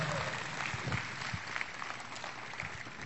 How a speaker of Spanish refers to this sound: Hasta ahí, gracias. Muchas gracias. Fuerte el aplauso.